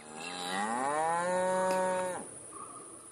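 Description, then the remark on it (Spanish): A single long, drawn-out cow moo, loud, rising slightly then holding steady for about two seconds before cutting off, followed by faint outdoor background noise, from one of 26 dairy cows grazing on the 18-hectare farm of an agricultural school. “Equipado con una máquina ordeñadora, los 38 alumnos actualmente van de mañana temprano hasta media tarde y realizan prácticas correspondientes a las 26 vacas que pastan en las 18 hectáreas que posee el centro educativo.”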